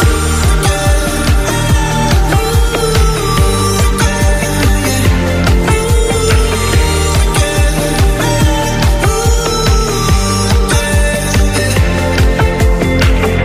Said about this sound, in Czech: Pokud by tahle písnička nezazněla, i tak si ji můžete přidat, pokud se vám zalíbila z téhle krátké ukázky